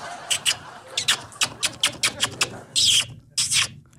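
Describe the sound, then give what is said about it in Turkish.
A rapid run of squeaky kissing chirps made by kissing the middle of the palm, imitating a budgie: about eight short, evenly spaced bursts followed by two longer, rougher chirps, with no talking. “Evet tam avcumun ortasını öpüyorum ve işin garip kısmı e, muhabbet kuşu.”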